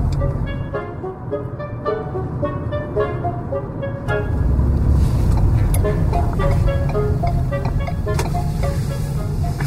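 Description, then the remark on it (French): Steady engine hum and road rumble inside a gasoline car, a droning low roar with a faint whine, growing slightly louder and rougher about halfway through as it keeps going without pause. “pas le silence d'une auto électrique, hein?”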